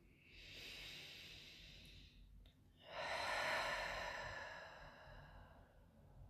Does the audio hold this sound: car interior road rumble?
no